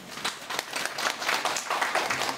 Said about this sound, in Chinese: 好不好？让我们给这些小朋友们一个掌声。